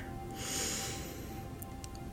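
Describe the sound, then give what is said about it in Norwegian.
A single slow breath drawn in through the nose, soft, swelling briefly before fading into quiet. No one speaks. “Jeg fokuserer på pusten min som går inn”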